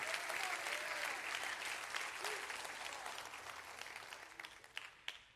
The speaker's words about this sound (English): Come on, clap them real big. Clap them real big.